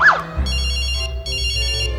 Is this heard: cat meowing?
no